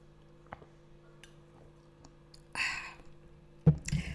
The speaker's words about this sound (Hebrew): הלגימות שלי, זה אני עכשיו עשיתי איזה שלוש או ארבע לגימות של מים קרים קרים, עם אה, קצת אלוברה, וואו.